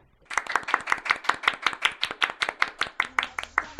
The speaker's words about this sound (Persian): این کف زدن دیگه برای چی بود برای اینکه خیلی باهاش موافقی